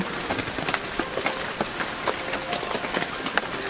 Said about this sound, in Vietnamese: Vừa ngắm nhìn từng hạt mưa rơi xuống tí tách